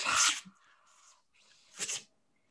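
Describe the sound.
A voice imitates a sci-fi door hissing open: a sharp breathy burst trailing into a thin sustained hiss, then a second puff of air, fairly loud.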